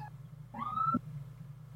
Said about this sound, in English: I heard sirens and this Sorry, is guys, the police. That was loud.